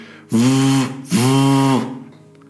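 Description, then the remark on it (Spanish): A mobile phone vibrates in two strong buzzing bursts, each under a second long, separated by a short pause. The buzz is loud with a rattling edge, and no one speaks. “es un vibrador, el sonido de un teléfono móvil.”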